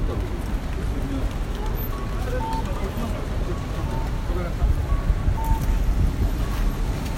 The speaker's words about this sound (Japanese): なんかさっきより雨が強くなってる